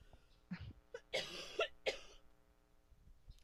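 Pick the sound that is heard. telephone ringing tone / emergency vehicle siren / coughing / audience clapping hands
coughing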